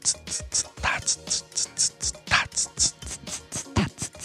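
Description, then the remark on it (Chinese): A voice imitates a slow rock rhythm pattern with mouth percussion, a rhythmic form rather than a slow tempo, counted in one-two-three groupings: a steady stream of crisp, clicky hits in a triplet feel, with a heavier accented beat recurring every few pulses. No words are spoken. “叫做慢摇滚 （slow rock）。”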